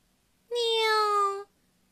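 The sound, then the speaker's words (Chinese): A single drawn-out meow lasting about a second, voiced by a person imitating a cat for a girl playing a kitten in a dance show: a clear, fairly high tone that slides slightly downward, heard on its own with no talk. “扮演另一只小猫的…对他叫了一声“喵”，…也叫了一声”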